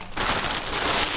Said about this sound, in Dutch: bevroren brood snijden is echt heerlijk. Knippen gaat niet, want dan gaat het brood soms, zeg maar, scheuren kapot.